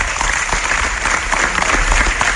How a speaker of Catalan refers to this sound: Continuen els aplaudiments amb un Joan Laporta que estès els braços, eh, fent el senyal de victòria amb els braços oberts, somrient sota la mascareta, se li nota la mirada, està molt feliç, sona l'himne del Barça